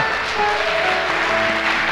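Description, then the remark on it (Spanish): An audience claps steadily and fairly loudly for the whole moment, a dense, even wash of applause with faint sustained musical tones underneath. “Eso merece un mejor aplauso.”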